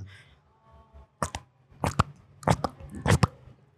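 footsteps approaching

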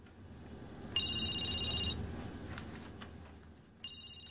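telephone ringing

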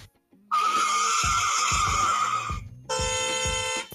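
car skidding and crashing

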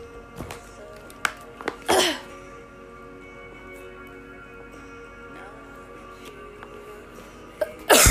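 coughing fit

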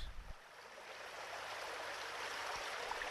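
river water flowing

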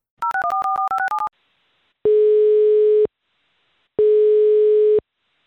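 telephone call ringing tone

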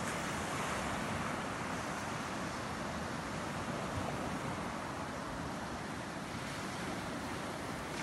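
ocean waves and surf

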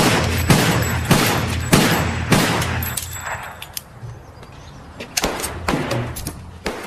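gunshots fired

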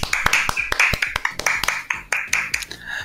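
hands clapping in applause

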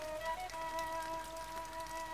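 rain falling

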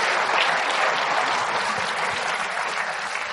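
loud applause

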